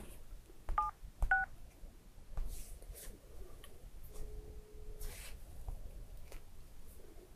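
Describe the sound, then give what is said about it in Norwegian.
Two short phone keypad dialing beeps in quick succession as a wrong number is pressed, inside a car, followed a few seconds later by a single steady, lower tone, with faint background noise and no talking. “Det var litt genialt å trykke feil nummer nå.”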